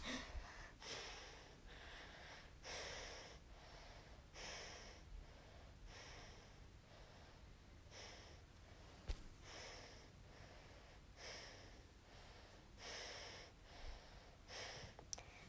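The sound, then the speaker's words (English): Steady, rhythmic, quiet breathing during a breathing exercise, each breath a soft airy rush repeating roughly every second or so, with no talking. “But if they go up none, then you're when you're breathing really quietly.”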